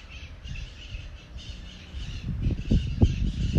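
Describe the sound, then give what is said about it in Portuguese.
Maritaca parakeets squawk outside in a steady, harsh chatter that builds louder toward the end, with scratchy calls overlapping and no voices. “E quanto maior o barulho de fora, as maritacas maritando.”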